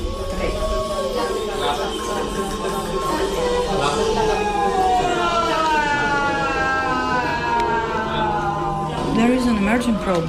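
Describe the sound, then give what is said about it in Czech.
A crowd of voices, led by a conductor, sings together, imitating the creaks and groans of the Adamello glacier ice with long, overlapping pitch glides and wavering tones, steady and fairly loud throughout. “Já teď budu dirigent orchestru a budeme se snažit zpívat společně všechny tyto zvuky, které jste se právě naučili.”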